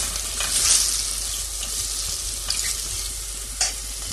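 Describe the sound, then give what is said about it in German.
Meat sears in a hot pan with a steady, hissing sizzle, punctuated by a few brief crackles and the scrape of stirring. No one speaks. “Schön, richtig schön kräftig anbraten.”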